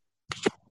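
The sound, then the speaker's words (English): A cold beer can snaps open with a sharp metallic crack and a quick burst of hissing fizz, lasting well under a second and fading into quiet. “Oh yeah, cracking a cold one.”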